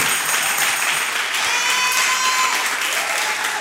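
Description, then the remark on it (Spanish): A church audience applauds the Lord vigorously during a service, a dense, steady wash of many hands clapping at once, loud and unbroken for several seconds with no voices over it. “Más fuerte ese aplauso.”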